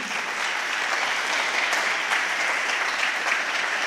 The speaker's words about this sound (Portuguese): Dá um aplauso aí.